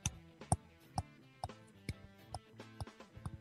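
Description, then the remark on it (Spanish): A metronome click track for musicians recording their parts separately ticks at a steady, brisk tempo, sharp evenly spaced clicks about twice per second, clear, with a faint tonal hum sustained underneath. “Tuvimos que colocar unos clics que son”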